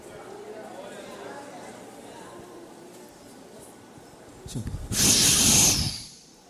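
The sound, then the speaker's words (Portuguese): A voice imitates a rough, stormy sea with a single loud, breathy hiss lasting about a second and a half, rising sharply out of silence and then cutting off. “Quando ele se levanta no barco, o mar bravo faz assim, ó.”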